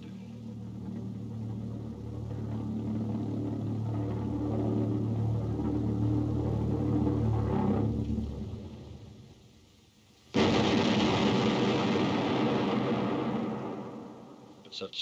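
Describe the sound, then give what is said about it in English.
A flying bomb's heavy engine drone roars low overhead for several seconds, fades into a brief lull, then a sudden loud, harsh rush of noise bursts in and gradually dies away. “From time to time, one of those infernal devices roared overhead.”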